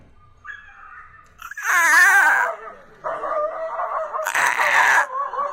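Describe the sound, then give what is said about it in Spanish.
A dog yelps and cries in frantic, high-pitched bursts while defending itself from a leopard, with two loud, strained outbursts separated by shorter whining barks, intense with no talking. “Ese es el sonido de un perro defendiéndose de un leopardo.”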